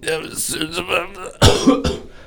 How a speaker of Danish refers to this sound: så når jeg får sådan bare rent salt eller noget mad, som er meget saltet, så kan jeg simpelthen ikke lade være med at hoste